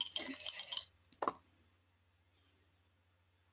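Dice clatter and rattle across a hard table for under a second, then two or three sharp clicks as they settle, followed by quiet. Close and fairly loud, with no talking.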